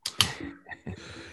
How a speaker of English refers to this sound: It's actually just gravy. he cracked a can of gravy. He's drinking it.